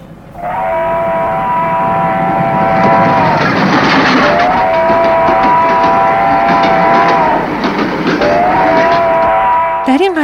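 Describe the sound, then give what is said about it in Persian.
A train rolls along the rails with a loud, steady rumble that fills the whole stretch, while a droning tone swells in and fades out three times over it. “چپالینو و آلبالو بعد از خروج از باغ سوار قطار شادی شدند”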